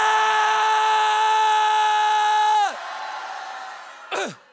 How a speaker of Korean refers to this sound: 자, 자, 저를 향해서가 아니라 예, 하나님을 향해서 하나님 나를 향해서 부르짖으 거예요. 한 5초 뭐 정도. 자, 하나, 둘, 셋.